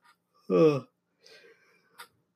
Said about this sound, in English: excuse me, I'm just yawning. I really shouldn't be yawning. uh, but anyway, as soon as I said economics, I had to yawn.